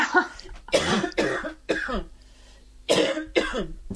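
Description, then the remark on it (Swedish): A run of about six loud coughs in uneven bursts, with a brief quiet gap in the middle before two more harsh coughs follow. “förlåt, mig jag måste bara hosta för jag får sådana hostgrejer.”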